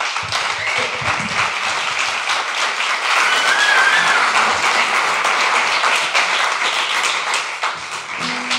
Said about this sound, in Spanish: y seguimos disfrutando de tus canciones, por favor. Vamos a acompañar con un aplauso